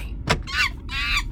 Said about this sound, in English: Oh, that's not a recording I made last Friday. That's, that's the sound of a monkey. Of a monkey yeah.